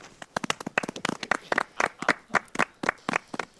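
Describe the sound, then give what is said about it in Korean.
A small group claps their hands together in a quick, uneven flurry of sharp slaps that lasts a few seconds, with no talking over it. “어자 박수”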